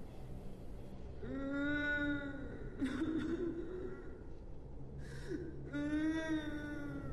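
A drawn-out, eerie wailing cry of a woman rises and falls in long sustained moans, repeated twice with a breathy break between, loud over a low rumbling background.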